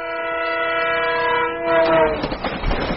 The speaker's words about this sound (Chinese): 小火车马上要开动了，大家赶紧上车！